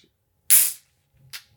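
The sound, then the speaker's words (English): A sudden sharp hiss as a shaken beer can bursts open, spraying for about a third of a second before fading, followed by faint low murmurs and a brief second hiss. “okay, it's honestly less bad of an explosion than I thought.”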